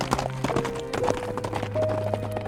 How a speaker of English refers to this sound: He ran outside and climbed atop the buckskin. With the sturdy crack of his whip, the horse darted away into the forest.